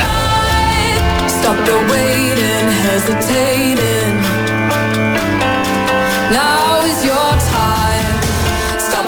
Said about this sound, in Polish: To jest kawałek, który słyszeliście w trailerze do gry Grid.